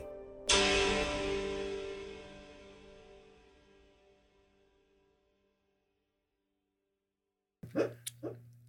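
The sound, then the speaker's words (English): A loud ringing tone fades into silence, then a dog lets out a few short, muffled woofs and yips while dreaming in its sleep. “That's my dog's. He's he's dreaming.”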